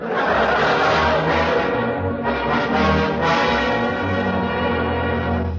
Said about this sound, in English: there it is. Big Bell and the Robin's old mission there. Look how big that thing is.